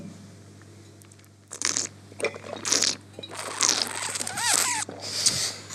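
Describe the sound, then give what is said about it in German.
Wine is slurped during tasting as air is drawn through it in the mouth, a series of wet, hissing, gurgling bursts over several seconds, with no one speaking. “Da schlürfen wir das Ding mal durch.”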